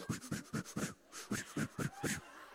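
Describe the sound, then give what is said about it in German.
A person pants rapidly and rhythmically, roughly eight or nine short, breathy huffs in quick succession, with a brief pause midway, demonstrating a breathing exercise learned in birthing classes. “I had went through uh, birthing classes when you, people give babies, you do breathing exercises like.”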